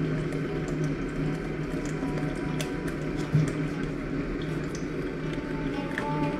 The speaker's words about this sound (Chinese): 啊，对，饮水机的声音。我靠，为什么？我说水为什么这么烫？我点了个一百度的热水。